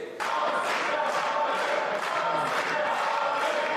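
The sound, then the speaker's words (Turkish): In the Turkish parliament, opposition members protest before debate on Article 29 begins: a large crowd roars continuously with clapping and shouted slogans, a dense, loud wall of voices and applause that starts abruptly and holds steady throughout. “29. maddenin görüşmeleri başlamadan önce muhalefetin protestosu başladı. Alkışlarla, sloganlarla.”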